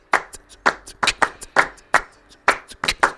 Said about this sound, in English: And then the claps ended up on top like that.